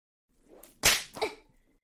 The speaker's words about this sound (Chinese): 所以我要惩罚你，用皮鞭抽打你。看你被我皮鞭抽打躲躲闪闪的样子，我就觉得好笑。有那么疼吗？